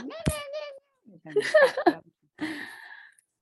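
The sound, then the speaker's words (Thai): A hungry cat meows a few times in short, insistent bursts with brief pauses between them, clear, with a high, drawn-out first call. “น้องแมวหิวเหรอใช่น้องหิวแล้วก็”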